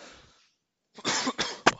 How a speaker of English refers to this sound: Well, excuse me, sorry, I've got a bit of a cough.